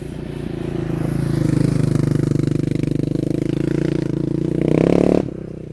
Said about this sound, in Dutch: Oh, daar komt een motor aan. Ja, ik oh, hoop ik rijd die snel voorbij.